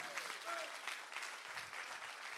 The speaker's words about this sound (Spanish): ¿Cuántos le pueden dar un aplauso más fuerte a Jesús?